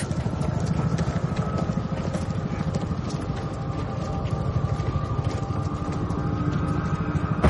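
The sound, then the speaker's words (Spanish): A helicopter flies over a power plant, carrying a yellow robot suspended on a cable about 100 metres long. Its rotor beats a fast, steady low thump under a continuous engine whine. The sound stays loud and even throughout, with no voices. “Un helicóptero sobrevuela la central.”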